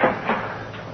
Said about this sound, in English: I raced down to the companionway. I fumbled for the key, and I opened the door.